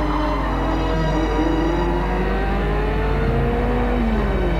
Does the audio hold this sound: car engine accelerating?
yes